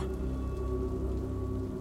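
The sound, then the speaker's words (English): Steady rain patters against a window in a dense, continuous wash of drops, with a faint low hum underneath and no voices. “And I turn to look through the rain washed window.”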